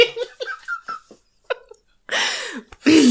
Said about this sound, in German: Ja, oh, jetzt habe ich, jetzt habe ich so, hast du das gerade gehört? Ich habe dich gerade beim Einatmen verschluckt.